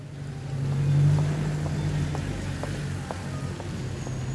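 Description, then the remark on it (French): A steady low engine rumble rolls on continuously, cars droning with a faint rhythmic ticking on top, like traffic on a major road. “Le bruit des voitures devient plus important sur les grands axes, un petit peu plus angoissant les épaules qui se rétractent.”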